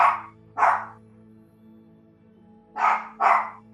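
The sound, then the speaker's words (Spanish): A pet dog barks four times, two quick barks, a pause of about two seconds, then two more, loud, over a steady low hum in the background. “Le damos un momentico a mi perrito a expresarse.”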